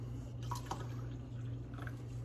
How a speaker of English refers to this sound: Like in Whistling Diesel's video, and that coffee pot really gets going. It's making a mean cup of coffee right now.